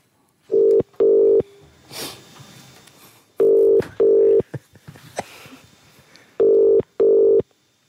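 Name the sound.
telephone dialing and ringing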